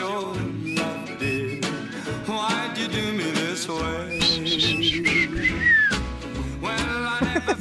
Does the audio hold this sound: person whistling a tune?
yes